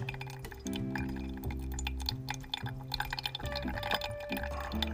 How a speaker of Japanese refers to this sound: いいですね多分音しっかり聞こえてるんじゃないですかねある程度の水位の高さまでいったらねお湯はゆっくりめに注いであの水位を上げない真ん中にこうゆっくり注いであげる一定の水位を保ちながら注いでいく感じですね